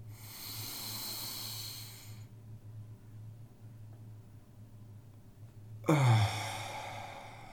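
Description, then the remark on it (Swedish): During a relaxation breathing exercise, a long, breathy inhale fills the first two seconds, then a pause before a loud, forceful exhale bursts out near the end, with no talking. “Och där också gärna betona andetaget ut. jag brukar säga det ju högre, desto bättre nästan. Ju högre ljud man gör.”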